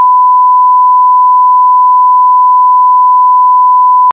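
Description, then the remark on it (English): A single steady, loud electronic beep at a constant pitch holds unbroken for about four seconds before cutting off abruptly, like a censor bleep covering a word. “We have the beep effect. Hit him with the beep.”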